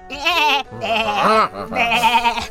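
goats bleating

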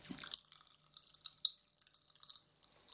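popping candy crackling

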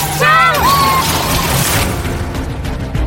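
car crash impact

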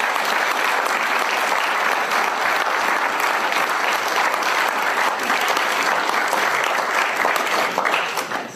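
audience applause

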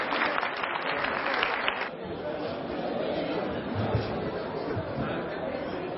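seminar audience applause

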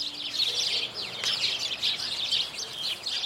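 house sparrows chirping

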